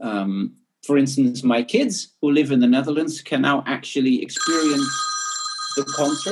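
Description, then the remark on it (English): A telephone starts ringing partway through, a steady electronic trill that keeps going to the end, sounding over a man who goes on talking. “Sorry, that's the phone going.”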